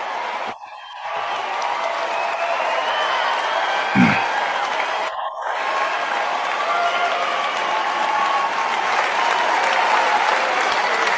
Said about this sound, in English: Listen to how long the applause is. I know. And what's, you know, like that's a man who's used to getting long applauses.